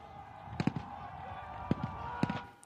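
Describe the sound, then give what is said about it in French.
Several sharp, booming blasts go off in quick bursts, some in close pairs, over a constant roar of crowd noise and a steady droning hum: firework mortars thrown by protesters at police, and grenades, exploding during clashes. “Des mortiers d'artifice et des cocktails Molotov sont lancés par les opposants sur les forces de l'ordre, qui ripostent avec des gaz lacrymogènes et des canons à eau.”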